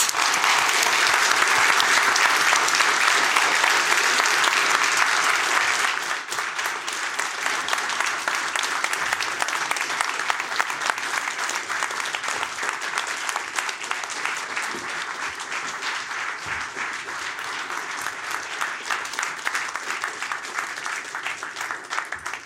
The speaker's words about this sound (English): Isn't it nice to get the applause on beforehand? So when they ask how it went, you can say, well, they clapped.